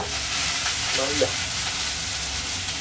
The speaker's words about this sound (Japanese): ちょっとうるさいなこれ、あの。今インスタントラーメンを作っててフライパンで野菜を炒めようと思ってお鍋に入れちゃったんでねちょっとこれは時間がかかりそうですね